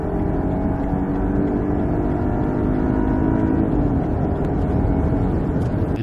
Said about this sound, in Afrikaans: Al wat flou is is die klank. Onder normale omstandighede klink die 530 U soos 'n doodgewone viersilinder.